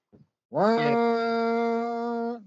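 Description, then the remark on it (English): A voice imitates the wailing warning siren from the film The Purge, holding one loud, steady droning tone for about two seconds after a brief faint noise, with a slight rise at the start and no other talking. “That's the purge siren. Yeah. Good impression.”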